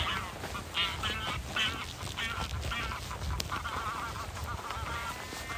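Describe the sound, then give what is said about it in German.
Two greylag geese call in the background on Pellworm, a North Sea island, in April: a series of nasal honks and quacking cries repeating irregularly over a steady outdoor rumble. “Zwei Gänse im Hintergrund, Schafe, die blöken.”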